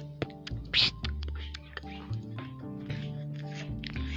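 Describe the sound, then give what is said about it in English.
Someone beatboxes for a few seconds, stringing together rapid wet clicks, hissy snare bursts and a low hummed bassline in a loose, steady rhythm. “Okay, rate my beatbox.”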